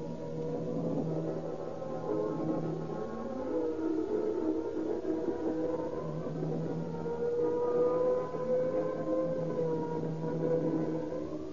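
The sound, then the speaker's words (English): A fire engine siren wails steadily as the engine speeds through streets to a garage fire, its pitch sliding up and down in long sweeps, loud and sustained over a low engine rumble, with no voices. “Once again, the roaring, screaming engine speeds through the shattered streets with men clinging to them like insects.”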